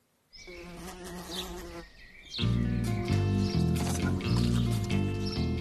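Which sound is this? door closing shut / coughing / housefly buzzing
housefly buzzing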